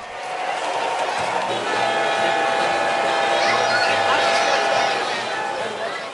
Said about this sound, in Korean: 작은 모형기차가 기적을 울리며 지나갑니다. 끊임없이 이어지는 철로 위로 모터를 단 수많은 모형기차들이 오가고, 유휘장과 놀이공원까지 모형으로 만들어져 있는 이곳은 바로 보이티모어 모형 기차공원.